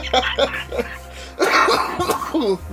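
A person coughs repeatedly: a few short hacking bursts, then a louder, rougher run of harsh coughs with some throat clearing.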